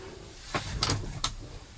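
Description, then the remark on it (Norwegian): A door is pushed shut with a muffled thud, then a couple of crisp metallic clicks as the lock turns, fairly quiet, with no voices. “sorry, måtte låse døren, for den måtte suges opp av den rare værtypen som er ute.”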